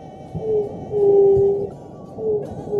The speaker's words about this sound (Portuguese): não é à toa que na canção a Juriti é lembrada como uma ave do canto triste